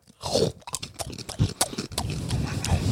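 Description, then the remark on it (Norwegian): A man chews loudly, with wet crunches and smacking bites coming in irregular bursts, and no talking over it. “det ble litt for mye av ASMR der. Jeg, jeg muta den til han er ferdig å tygge.”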